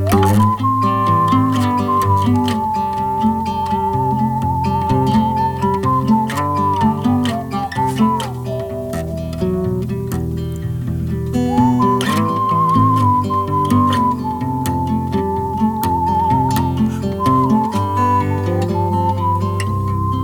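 A clear whistled melody with gentle vibrato floats above a full band arrangement, carrying long sustained notes, pausing briefly midway, then returning over the steady instrumental backing.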